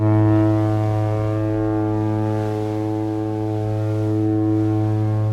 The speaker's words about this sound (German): Das Schiff steht beinahe unter vollem Dampf, als plötzlich ein fremdes Nebelhorn zu hören ist. Es ist das Signal des sehr viel kleineren italienischen Passagierdampfers Florida.